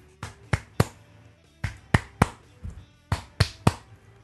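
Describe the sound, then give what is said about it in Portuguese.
Nine sharp hand claps of a paô, the ritual clapping done three times three beside an offering, in three evenly spaced sets of three, each set a quick steady triplet followed by a short pause, crisp and loud with nothing else sounding. “Paô é o sentido das palmas, que na minha tradição é 3 vezes 3, então é algo mais ou menos assim.”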